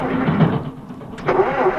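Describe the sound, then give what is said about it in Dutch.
A car engine with a blocked air intake sputters unevenly, its rough mechanical rumble faltering and dipping before briefly catching again, fairly loud with no talking. “We hebben de luchtinlaat geblokkeerd. En dan geeft de beste motor in de brui aan.”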